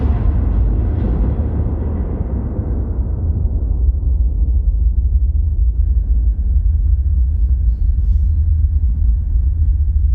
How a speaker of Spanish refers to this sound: Me parece una música fabulosa. Pues sí, esto es nada más y nada menos que la banda sonora de Winter Brothers de Ilnur Palmason, un pedazo de director islandés